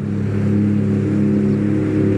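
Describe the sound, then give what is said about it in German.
A jet ski engine drones steadily on the water, a loud, constant low hum with a buzzing, harmonic tone that holds without pause. No one speaks. “Und euch, ihr elenden Versager, ihr Krüppel, ihr niederen Subjekte auf euren Jetskis, möge euch der Blitz, ihr wisst schon, wo treffen.”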